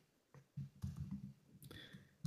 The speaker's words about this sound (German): Ich muss nebenbei tippen, deswegen dauert das ein bisschen länger. Verzeihung.